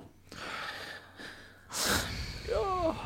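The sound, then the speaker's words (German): A man crying as he says goodbye to his pet Nepomuk: shaky breaths, then a loud, wet sniffle followed by a brief, wavering, whimpering sob. No talking. “ihr hört es, wir nehmen Abschied von Nepomuk.”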